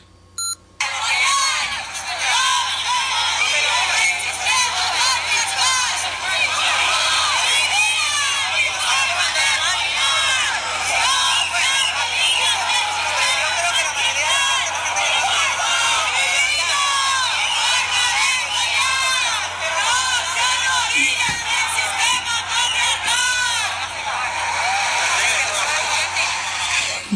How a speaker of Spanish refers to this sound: bueno, por si no queda claro, mi vida, mi cuerpo, mi forma de follar no se arrodillen del sistema patriarcal. Esas y muchas otras consignas se gritaban el día de ayer en las calles de Barcelona protestando por esta contrarreforma